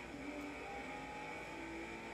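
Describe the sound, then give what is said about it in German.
A Nissan race car in a video game drones steadily at high revs, its pitch holding and rising slightly as it accelerates, loud with no voices. “Der Nissan zieht auf jeden Fall ab.”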